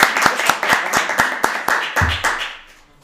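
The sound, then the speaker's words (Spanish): A short burst of applause at the close of an interview: steady, evenly spaced claps, about a dozen, fairly loud, trailing off into quiet at the end. “Gracias, queridos amigos, aplauso para”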